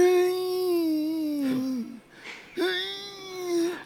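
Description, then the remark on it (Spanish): A man's voice imitates two long, drawn-out groans, strained and wavering, mimicking how a 37-year-old man sounds getting out of bed each day with his back and knee. The groans are loud, with a short breathy pause between them. “Así suena este hombre cuando se levanta todos los días de su cama. La espalda, la rodilla.”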